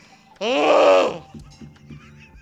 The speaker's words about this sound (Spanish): ahora que he hecho este grito.